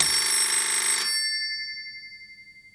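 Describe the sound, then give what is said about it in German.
A loud telephone bell rings in one rattling burst for about a second, then its metallic tone lingers and slowly fades away. No one speaks. “Oh nee, ey, schon wieder Telefon.”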